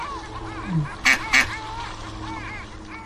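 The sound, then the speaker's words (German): Two loud, harsh duck quacks in quick succession as the ducks are fed bread, over a steady background of softer warbling bird calls and faint ambient noise. “Noch ein Stück Brot für die Enten”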